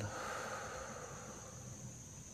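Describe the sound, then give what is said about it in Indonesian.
A long, steady breath blown out through the mouth after a deep breath in through the nose, during a seated relaxation exercise, a soft, breathy hiss that holds evenly for a couple of seconds, fairly quiet, with no talking. “Relax, santai tarik nafas dalam dari hidung buang dari mulut hembuskan”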